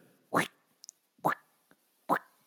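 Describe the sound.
A voice imitates a zombie's plodding footsteps: three evenly spaced, hollow plopping thuds about a second apart, fairly loud, with faint small clicks between them.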